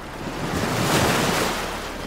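Steady ocean surf washes against a beach, a broad rushing roar that swells slightly in the middle, with some wind buffeting the microphone and no voices. The dirty beach water is filmed with a small camcorder from on top of a large pile of rocks.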